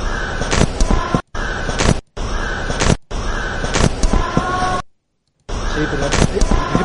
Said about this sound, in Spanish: Y ahora, os va a parecer una tontería, pero identifico un loro silbando. Más que un loro silbando.